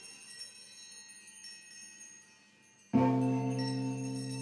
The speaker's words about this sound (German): Was ist das für ein Glockenläuten? Was ist das für ein Glockenläuten?